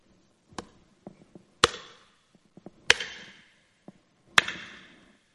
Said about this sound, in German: So hören sich die Hämmer schlägern